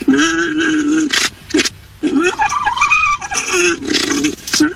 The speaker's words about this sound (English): We are about to hear an orgling male llama. This is the noise of llama mating. This is the noise of a male llama orgling.